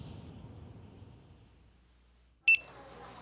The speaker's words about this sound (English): My job was to wait for the beep and then flip the meat